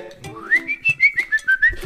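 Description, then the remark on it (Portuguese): A person whistles a short rising-then-steady tune in quick, even pulses, the notes clear, with no one talking over it. “Da, da pessoa que conseguia assobiar, chupando pizza. E assobiar.”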